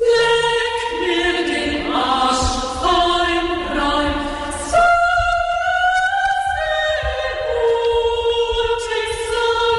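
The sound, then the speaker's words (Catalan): Three voices sing a canon together, with words by Mozart and music by a little-known composer, their sustained notes overlapping in interweaving melodic lines, steady and fairly loud throughout, with no talking. “La música és d'un compositor que ara no coneix ningú, que es deia Afon Krovitz, bé, i és un cànon també tres veus Vam, que diu que sona així.”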